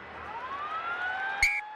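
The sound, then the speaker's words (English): A loud full-time siren at Ellis Park rugby stadium wails steadily at the end of an All Blacks match, its tone slowly rising in pitch over a low background roar, with a brief sharp burst of noise near the end. “Over it goes. There goes the siren.”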